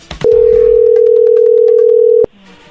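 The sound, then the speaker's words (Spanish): A phone line tone as a call is placed: one loud, steady, mid-pitched beep held for about two seconds, with no voices, then cutting off into faint background hiss. “Ahí está marcando, no hagan ruido.”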